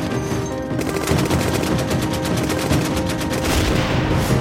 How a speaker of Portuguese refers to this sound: Mas as mesmas eram rechaçadas diante do pesado fogo da infantaria norte-americana, que concentrou todo o seu poderio contra as ofensivas japonesas.